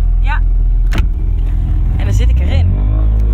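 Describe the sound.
A car roof closes over a steady low engine rumble, with a sharp mechanical clunk partway through and short whirring motor sweeps before and after it. Faint voices are present.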